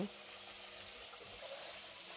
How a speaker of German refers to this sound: So, die sollten jetzt nämlich fertig sein. So. Einmal abgießen. Und nochmal mit kaltem Wasser abschütteln.